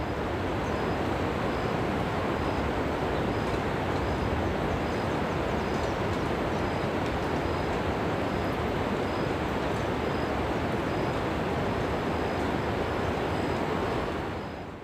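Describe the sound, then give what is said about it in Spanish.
A powerful waterfall by a house in the wild mountains of Costa Rica roars without pause, louder than usual after heavy rain today and yesterday, a dense, loud, steady rush of water filling the whole scene from start to finish, with no voices. “Hoy llovió con fuerza, al igual que ayer, y la catarata se escucha mucho más fuerte que de costumbre.”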